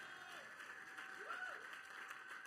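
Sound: audience applause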